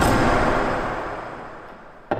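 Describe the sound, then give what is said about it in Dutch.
The huge locks of enormous, very heavy steel doors slam shut with a loud, booming clang that rings out and slowly fades with reverberation, followed by a second sharp clank right at the end. “en daarna weer enorme sloten dicht slaan.”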